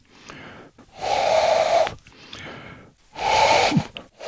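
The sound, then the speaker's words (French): A person imitates an owl's call with two long, breathy hooting blows, fairly loud, separated by a short pause and a quick intake of breath. “Euh, euh, j'imitais même leur son.”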